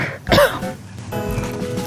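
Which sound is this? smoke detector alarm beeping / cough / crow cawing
cough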